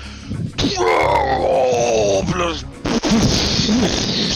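A gorgon's loud, piercing cry rings out for about two seconds as a Firebolt strikes its exposed heart, its pitch wavering and sliding, then gives way to a harsh, rumbling burst of noise.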